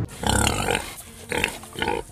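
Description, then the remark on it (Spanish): A pig grunts in three bursts, the first long and loud, followed by two shorter, nasal snorts, without any talking. “Oye, Karaturki, amigo, ese animal que tiene la columba esparza no es un perro, hermano. Es un puerco, nomás que está disfrazado de perro.”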